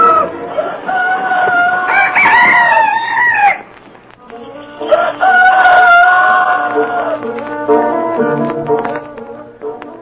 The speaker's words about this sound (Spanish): Dicen que cuando los gallos cantan temprano por las noches es que se va a descomponer el tiempo o va a suceder un acontecimiento extraordinario.